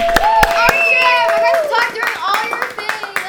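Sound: audience clapping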